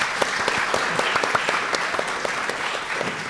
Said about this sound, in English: So another round of applause for Gill, I think, as well.